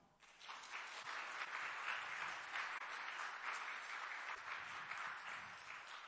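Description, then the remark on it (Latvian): An audience breaks into sustained applause to thank God, a dense wash of many hands clapping at steady volume for several seconds, with no voices standing out. “Un vai mēs varētu Dievam pateikties ar aplausiem?”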